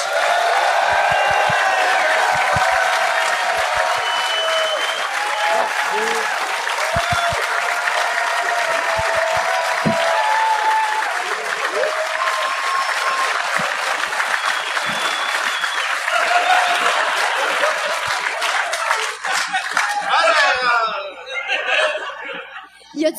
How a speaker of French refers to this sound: OK. J'aimerais ça, s'il vous plaît, donner de l'amour, donner une grosse, grosse, grosse bonne main d'applaudissement à Kathleen Rouleau, Michel Courtemanche.